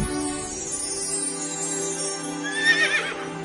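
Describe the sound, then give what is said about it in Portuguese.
A horse neighs loudly, a sustained whinny that rises into a shrill, quavering peak near the end before trailing off. No one speaks. “E nela vi um anjo do Senhor montado num cavalo vermelho.”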